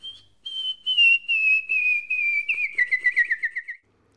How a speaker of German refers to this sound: Pfeifen ist aber nicht nur Kommunikation, sondern auch kunstvolle Imitation. Das größte Vorbild? Die Vögel.